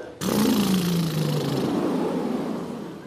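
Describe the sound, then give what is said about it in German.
A loud voiced lip trill done as a vocal warm-up, blowing through the lips with a tone: a buzzing, motor-like lip flutter carrying a tone that glides gently downward in pitch, continuing for about three seconds. “Jetzt wollen Sie aber ja nicht nur Lippen flattern oder summen, sondern vielleicht einen kleinen Ton erzeugen.”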